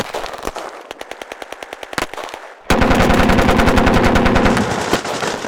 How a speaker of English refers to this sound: All right, watch out. Oh, there's people. Gunfire.